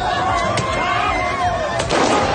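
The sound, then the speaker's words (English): Two sharp pops of fireworks burst out, one early and one near the end, over a dense bed of crowd noise, shouting and whistling tones. “Shooting off fireworks.”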